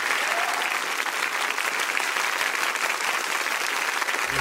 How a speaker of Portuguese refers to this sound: Aplaudam Luiz Fernando Veríssimo.